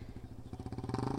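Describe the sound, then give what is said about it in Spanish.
A motorcycle engine, used by a man to carry things up and down, idles and revs, its rapid, rhythmic low-pitched putter growing slightly louder toward the end of the short clip. “Ay, la moto me está arruinando el momento sentimental.”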